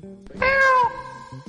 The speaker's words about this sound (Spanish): ¿Qué es una oveja eso? ¿Qué? Un gatito. Un gatito primaveral.